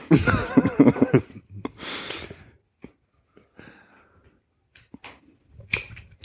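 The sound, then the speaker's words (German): Ice cubes clink against a drinking glass in a few short, bright taps scattered over several seconds, fairly soft, after a brief burst of laughter at the start. “Der Nachteil von Eis im Glas übrigens. Die wunderbaren Geräusche.”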